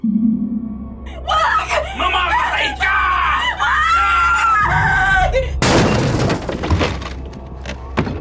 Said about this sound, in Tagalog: Bigla nilang narinig si Maria na sumigaw uli.